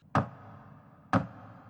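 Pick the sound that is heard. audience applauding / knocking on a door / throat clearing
knocking on a door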